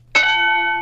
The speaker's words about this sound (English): One of them is a drinking bell, a sound effect you've already heard.